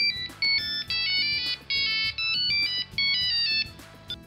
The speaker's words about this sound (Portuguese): Um telefone com toques monofônicos.